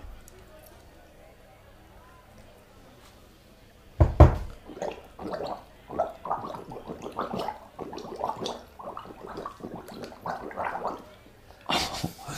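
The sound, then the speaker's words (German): After a few quiet seconds, someone gargles liquid from a cup while trying to hum their favourite song for others to guess, producing a bubbling, wavering run of tones that continues for several seconds. “Ran an den Becher, ran zum Mund, googeln, was dein Lieblingssong ist und wir müssen raten.”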